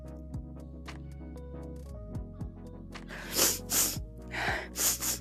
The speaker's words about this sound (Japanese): 大丈夫そうくしゃみでお祝いか最高やね。いや、ちゃちゃちゃちゃ、たまたま今ムズムズして。